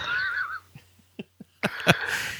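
A horse whinnies in a high, wavering, almost melodic call, followed by a few short sharp snorts or thumps and then a second noisy, drawn-out whinny, loud.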